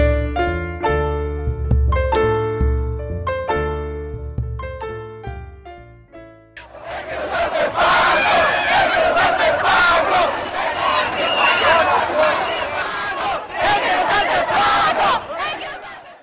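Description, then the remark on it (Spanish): A short musical passage plays for about six seconds, then cuts to a loud, dense protest crowd chanting and shouting together, sustained until the end, at the March of All Marches in Chile on 21 March 2014. “El 21 de marzo del 2014 se realizó la llamada Marcha de todas las marchas en todo el país más de 40 organizaciones se movilizaron por las principales ciudades de Chile.”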